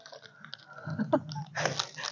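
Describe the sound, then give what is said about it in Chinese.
A dog crunches a biscuit, a quick run of crisp, irregular bites and chewing snaps, with a louder burst of crunching near the end and no talking. “吃呢，他吃饼干。”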